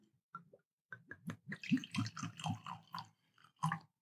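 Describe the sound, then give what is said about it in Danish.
Fino sherry, a very light sherry, glugs and splashes into glasses in a series of short bursts, a gurgling pour that pauses briefly and resumes, with soft drips between. “Imens Peter hælder op, så kan jeg jo lige fortælle, at det er jo sådan en helt lys sherry, vi skal have her”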